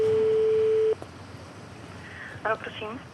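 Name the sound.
telephone call ringing tone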